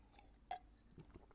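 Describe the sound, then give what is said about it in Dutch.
A quiet sip of water: one small clink of a glass, then a couple of soft swallowing and mouth sounds, with no one talking. “Even een slokje water.”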